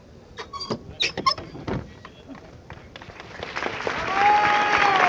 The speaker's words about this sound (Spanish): Pues ese triple golpe seco. Quien va, la hermandad Incorporación... el chirriar de la puerta.